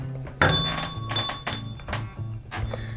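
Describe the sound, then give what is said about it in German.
A shop door bell jingles brightly and rings on, followed by several heavy footsteps thudding across a creaky wooden floor, with no one speaking. The shop is an original Viennese grocer's shop from the late 1960s to early 1970s, kept in the district museum in Penzing, Vienna. “Sie hören es schon an der Türglocke, Sie hören es am Boden.”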